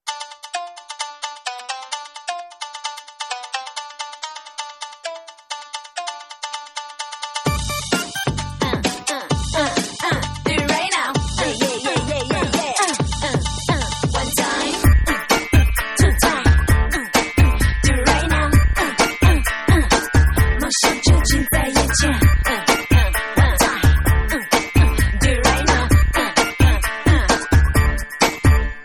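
A pop song intro opens with a bright, tinkling music-box melody, then heavy drums and bass burst in around a third of the way through, building into a loud, busy dance beat with no vocals yet.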